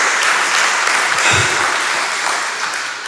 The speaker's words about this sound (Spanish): Aleluya, fuerte las palmas.